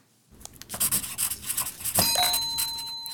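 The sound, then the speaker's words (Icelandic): A pencil scratches across paper in a quick series of short, raspy strokes, followed by a bright metallic ding that rings on and slowly fades. No one speaks. “Að svona, þegar blíjandur er að skrifa blad.”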